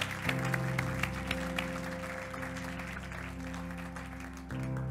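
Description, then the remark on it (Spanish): An audience applauds God with dense, steady clapping that runs throughout, layered over sustained low keyboard chords that shift partway through. “Eso no se merece un aplauso a Dios por haber hecho tremenda.”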